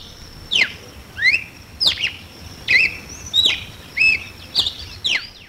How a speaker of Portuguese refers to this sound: Por exemplo, para essa semana, as opções eram Curió, Bicudo e cardeal do Nordeste, que muita gente também chama de galo de Campina.